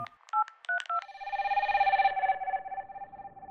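A quick run of about five touch-tone dialing beeps as a woman in Toronto phones her mother, then a steady, warbling telephone ring tone that fades slightly as it continues, clear, with no voices.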